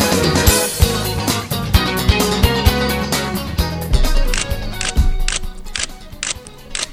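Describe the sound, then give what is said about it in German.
A camera shutter clicks over and over in quick, uneven bursts while taking photos of a room's ceiling, sharp crisp snaps repeating for several seconds above a steady, humming tonal background. “Jetzt habe ich lauter Bilder von der Zimmerdecke hier.”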